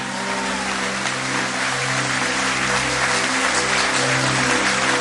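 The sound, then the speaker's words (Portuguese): An audience gives an applause of praise with steady, dense clapping that holds at an even loudness for the whole stretch, a broad crackling wash with a low hum running underneath. “Aplauda ele e dê-lhe um forte aplauso de louvor.”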